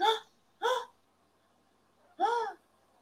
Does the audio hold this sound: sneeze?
yes